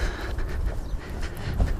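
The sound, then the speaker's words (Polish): Strong wind buffets the microphone, which is fitted with foam windscreens, on a sunny day, in a steady low roar with deep rumbling thumps and gusts swelling and easing. No one speaks. “No, I to wtedy jest wiatr.”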